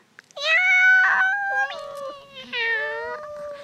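A cat meows loudly, three drawn-out, wavering meows in quick succession, each sliding downward in pitch, with no other sounds around them.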